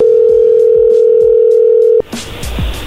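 A steady, loud telephone tone drones without a break for about two seconds after the caller hangs up again, then cuts off abruptly into rustling background noise.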